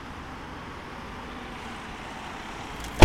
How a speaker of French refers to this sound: Là, il y a pas mal de voitures qui passent, donc je suis assez optimiste.